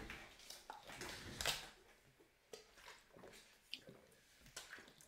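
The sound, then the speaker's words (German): Wet gulping and liquid sloshing from someone drinking out of a bottle, with soft swallowing clicks and a brief squishy burst partway through, fairly quiet. “Kurz was trinken. Das hört man, keine Angst.”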